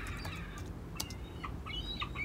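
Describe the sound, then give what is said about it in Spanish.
A seagull gives a laughing call, a run of harsh, cackling notes repeated in quick bursts, over a low, steady background rumble. “La gaviota te manda recuerdos. Mira que se ríe la condenada, pero ¿Qué demonios le hará tanta gracia?”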